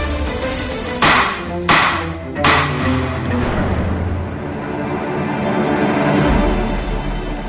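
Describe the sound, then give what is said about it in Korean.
A judge's gavel strikes three times in quick, even succession, each crisp wooden knock loud, followed by a lingering hum of background sound with no talking. “그 이유가 뭐냐면 탕탕탕 치는 게 너무 멋있어 보이는 거예요.”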